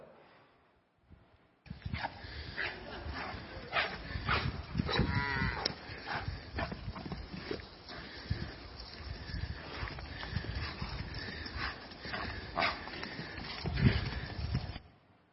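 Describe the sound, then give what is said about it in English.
Calves bursting out of a stall with a jumble of hoof clatter, thumps and bleating moos, busy, continuing for over ten seconds after a brief quiet start. “I've never seen a calf leap, leap from the stall.”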